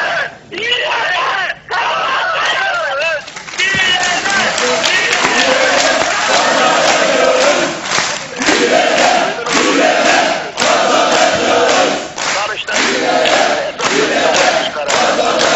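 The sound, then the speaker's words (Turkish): A large crowd in a hall chants the rhythmic slogan "direne direne kazanacağız" ("by resisting, we will win"), a call from Yırca. It is loud and energetic, with bursts of cheering and shouting between the repeated phrases. “Yırca'dan gelen o ses direne direne kazanacağız sesi salonu coşturdu.”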